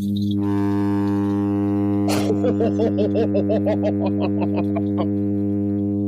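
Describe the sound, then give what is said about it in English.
A midshipman fish hums a steady, low, buzzing drone that holds unbroken for the whole stretch, while a burst of laughter rises over it partway through. “I put mid and then the letter S, and it came up midship, midshipman fish sound.”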